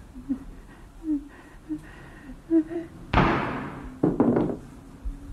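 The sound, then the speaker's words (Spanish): A single loud gunshot cracks out of a quiet ambient background and rings off with a long echoing tail, followed about a second later by a quick cluster of sharp impacts. “Cuando el disparo todavía resuena en nuestras cabezas, ¿qué pasa?”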